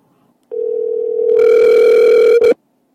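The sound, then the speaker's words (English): A single steady telephone ringing tone as a call to a friend is placed, about two seconds long, loud, growing slightly brighter partway through before cutting off abruptly. No voices are heard. “I'm going to improvise and call a friend of mine who I'd kind of wanted to have on the show anyway, so I'm going to do that now and let's see what happens.”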